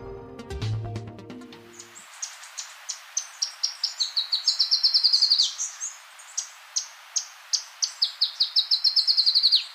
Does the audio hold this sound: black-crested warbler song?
yes